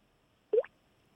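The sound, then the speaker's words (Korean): A single short water-drop plop imitated with the mouth, with a quick upward-bending pitch. It is clear against near silence, with a faint second blip right after. “이 다음은 물방울 소리를 준비를 했는데요.”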